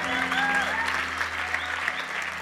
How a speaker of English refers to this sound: Let's clap for them for a moment. Hey. Hey. Come on, let's clap for them. Hey.